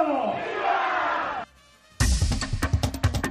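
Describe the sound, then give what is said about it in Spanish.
A large crowd in Mexico roars a sustained shout, breaks off into a brief lull, then erupts again in loud, rhythmic bursts of cheering and chanting "¡Viva!" in response to the Independence Day Grito given by Andrés Manuel López Obrador. “Bueno, ahí el grito diagonal discurso de Andrés Manuel López Obrador.”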